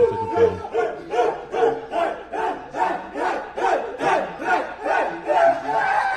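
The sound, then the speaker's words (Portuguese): A large crowd chants the player's name "Ney" over and over, loud rhythmic shouts repeating roughly twice a second in a steady, pulsing cadence that fills the whole stretch. “Eles gritando Ney, né?”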